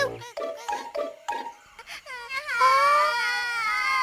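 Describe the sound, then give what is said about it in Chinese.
Babies crying loudly to wake a big sleeping blue baby bear that blocks the road: a few short sobbing bursts give way to a long, sustained high-pitched wail that rises and wavers, with no words spoken. “看，宝宝超人哭得好大声，他们想把这只蓝色的熊宝宝吵醒呢。”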